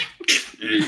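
A single sharp sneeze, a sudden burst of hissing breath followed by a brief voiced trailing sound, loud with no talking.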